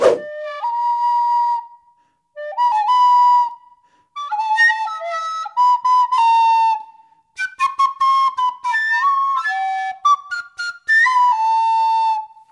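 A flute played badly by someone who likes the flute but does not like playing it, with shaky, wavering notes in halting phrases, pitches sliding and stopping abruptly, with a few shrill squeaks and no voices.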